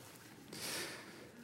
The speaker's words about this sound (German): Jetzt muss ich mir die Nase putzen. Entschuldigt.